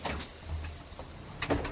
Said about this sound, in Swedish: Han avbryts av ett krafsande ljud på dörren. När han öppnar sitter Kurts katt utanför.